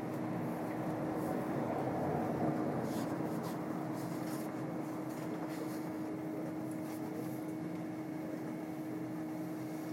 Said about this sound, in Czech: Tma duní mezi pražci. Za okny vlaku praská noc na větvích a zevnitř na sklech naše obličeje.